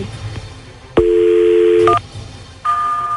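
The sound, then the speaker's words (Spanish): A telephone being dialed: a steady two-note dial tone runs for about a second, a short keypad beep cuts in, and after a pause a higher steady tone begins. No voices. “Ok, voy a marcar y voy a preguntar por Bianca y le voy a decir que estoy siguiendo a tu marido, ¿eh?”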